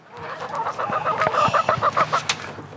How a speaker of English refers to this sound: The chickens. Hey, chicks. It's okay, chicks.